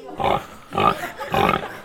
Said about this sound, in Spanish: Y a medida que fueron adentrándose, se encontraron con patos, gallinas, chanchos,